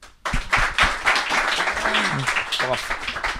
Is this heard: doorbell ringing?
no